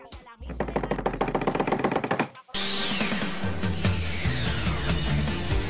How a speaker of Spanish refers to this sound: escucha, escucha, escucha el redoble de tambores y ahí te va.